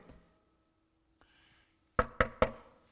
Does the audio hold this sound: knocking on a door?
yes